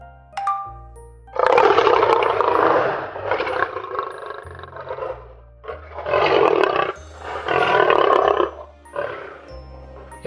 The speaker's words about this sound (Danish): vi fik en af løverne i zoologisk have til at brøle helt vildt højt, og så optog Freja lyden på min mobil